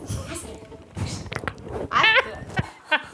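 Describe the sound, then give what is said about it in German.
Loud scraping and crunching bumps as a four-month-old terrier puppy gnaws and bites right on the microphone, with uneven bursts and a brief high whine-like sound midway. “Ja, und jetzt frisst das Mikro und dann ist nichts zum Essen.”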